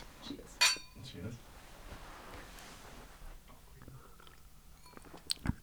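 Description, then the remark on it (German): Glasses clink together once in a toast, a bright ringing tap that fades quickly. Quiet handling and sipping sounds follow, with another faint clink near the end. “Ähm, dazu kommen wir auf jeden Fall auch noch, nachdem wir angestoßen haben. Prost erstmal.”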